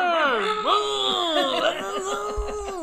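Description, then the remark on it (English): A voice imitates a chainsaw, as in the film The Texas Chainsaw Massacre, with a buzzing, wavering vocal drone for nearly three seconds, rising and dipping in pitch, fairly loud, with a laughing edge toward the end. “I don't know how to do a chainsaw sound, but I guess I was close enough.”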